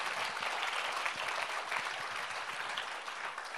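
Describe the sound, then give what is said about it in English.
An audience claps together in a steady, dense wash of applause that holds at an even loudness for several seconds, with no voices standing out. “Let's clap.”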